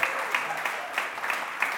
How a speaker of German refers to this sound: Und, äh, und so äh, würdet ihr sie bitte einen Applaus geben. Sie haben einfach hervorragend gelehrt, Gottes Wort mit uns geteilt